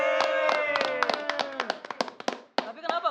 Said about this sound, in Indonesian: Ulang tahun 31. Ah. Tepuk tangan dulu